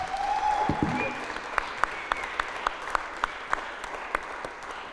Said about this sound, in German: Und ich würde sagen, wir geben euch auch einen Applaus dafür.